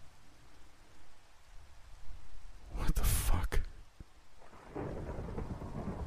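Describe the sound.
Steady rain hisses throughout while a sharp, loud thunderclap cracks in the middle and rumbles briefly. A voice speaks a short exclamation over the storm.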